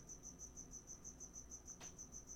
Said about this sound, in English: oh my God, can you guys hear this cricket in the background?